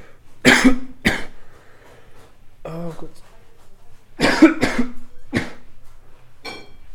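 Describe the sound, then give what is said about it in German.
A person coughs several times: two sharp, harsh coughs, a short spoken remark, then another cluster of three loud coughs, with a faint hoarse trailing sound at the end. “Also Husten oh. ist dein Platz 3.”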